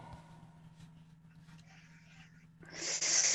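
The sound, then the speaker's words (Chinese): Heavy breathing blown straight into a microphone: a couple of soft breathy puffs over a low hum, then a loud, harsh rush of breath that fills the last second. “老别老别老喘气儿，老妹儿，哎哎，一会儿这期这期节目给我禁了，别老喘气儿，不好。”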